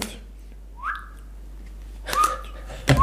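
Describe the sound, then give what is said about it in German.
A person gives a few short, chirpy whistles imitating a restaurant customer who whistled with every move while paying from his wallet, starting with a quick rising note and followed by two more brief whistles spaced apart, fairly soft, with no talking. “Er hat jeden Handgriff, den er gemacht ja, hat, mit einem Pfiff begleitet.”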